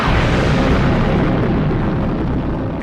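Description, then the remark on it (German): The explosion of the atomic bomb Little Boy, dropped from the bomber Enola Gay on Hiroshima at 8:15 local time on 6 August 1945, roars as a dense, continuous rumble, heavy in the low end and loud throughout, fading slightly toward the end with no voices present. “Der Bauch der Enola Gay gebiert die Bombe Little Boy.”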